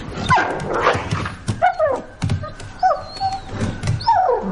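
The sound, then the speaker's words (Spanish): A wolf whines in high, wavering cries while jumping against a wooden door several times at night, fairly loud, with no voices. “De noche, Fantasma salta contra una puerta.”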